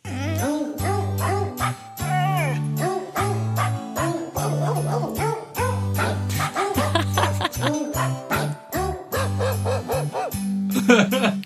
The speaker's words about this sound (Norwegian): Det er noen hunder som har lyst til å synge denne julesangen. Men hvilken julesang er det?